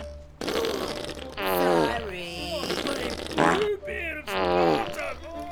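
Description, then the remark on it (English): A loud, drawn-out series of farts (a sound effect), several sputtering bursts in a row with wobbling, bending pitch, prominent with no talking over them. “And by night, she'd cook the entire crew her famous cabbage soup, resulting in a dangerously toxic atmosphere below decks.”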